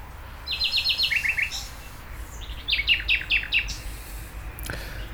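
Birds chirp outdoors in two quick bursts of bright, rapidly repeated notes over a steady hiss of background ambience, with no voices.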